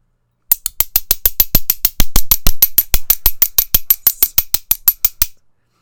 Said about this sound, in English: So then you get home and you you get to your room and you do your favorite hobby, which is clinking two metal spoons together very quietly.